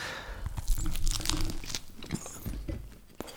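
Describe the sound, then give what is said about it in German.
Crackly crunching as a crusty bread roll, freshly baked in an oven and now cold, is bitten into, a burst of brittle crust snapping and tearing, followed by softer chewing crackles with no talking. “Komm, dann lass uns jetzt noch mal ins Brötchen reinbeißen.”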